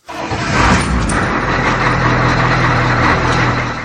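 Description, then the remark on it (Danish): A heavy bus engine starts with everyone aboard, heading for the park, and settles into a loud, steady rumbling idle with a low droning hum, continuous with no talking. “Alle er kommet ombord, og bussen starter med kurs mod parken.”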